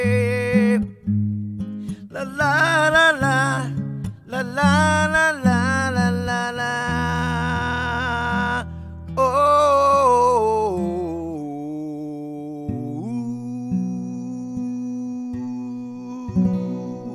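A pop song winds down to its close, a sung melody over sustained chords and bass, with instruments holding and fading through the final bars. No one talks over it.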